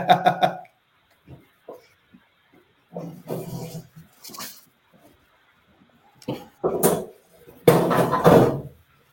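A chair is pulled up, dragged and shifted across the floor in several loud bursts of scraping and bumping, separated by short quiet gaps, with a longer scrape near the end.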